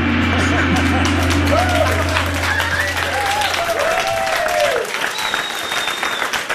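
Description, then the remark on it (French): An audience bursts into sustained applause, a dense, steady wash of clapping that holds strong for several seconds before easing slightly, with faint voices and whistling tones mixed in. “On peut les applaudir, ouais.”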